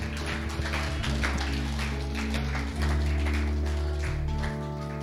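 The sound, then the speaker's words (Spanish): A church audience gives a loud applause to the living Christ in a dense, steady wash of clapping that lasts the whole stretch, with sustained low musical tones held underneath and no one speaking. “Alguien que diga aleluya con un fuerte, fuerte, fuerte aplauso al Cristo vivo.”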